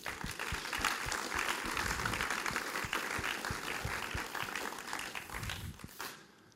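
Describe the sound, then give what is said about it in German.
A crowd applauds steadily for three people, dense overlapping claps forming a continuous wash of sound that holds for about six seconds before quickly tapering off. No one speaks. “Geben wir ihnen drei einen herzlichen Applaus.”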